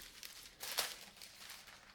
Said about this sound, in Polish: Na klawiaturze znajduje się, jak słyszycie, coś w rodzaju bibuły. 5 lat temu była to taka szmatka, coś w rodzaju mikrofibry.